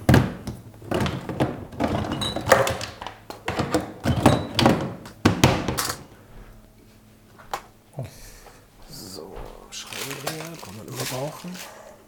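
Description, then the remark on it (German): A flurry of sharp knocks and plastic clatter as a small six-pin service connector from a microphone is dropped into a sorting box drawer, which is shuffled and shut. Quieter rustling and a voice follow. “Also tue ich ihn in so ein Sortierkästchen.”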